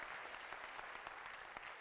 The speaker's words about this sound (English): Let's get these young people a hand clap again. Praise the Lord. Thank you, thank you, thank you. Praise God.